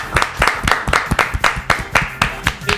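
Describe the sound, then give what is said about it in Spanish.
Studio applause from a small group welcoming a guest: sharp, crisp claps landing at a quick, fairly even pace for a few seconds, with no voices over them. “Y este es el aplauso para él. Apláudalo, dale.”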